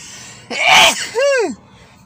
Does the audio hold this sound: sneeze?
yes